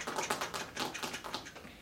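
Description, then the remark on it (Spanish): Rapid, uneven clicking of keys being typed on a computer keyboard by someone working late, a steady patter of light taps with no voices. “un día me quedé yo trabajando hasta tarde y estaba yo, y ya sabes cómo se escucha el teclado, ¿no? Se escucha así, ¿no?”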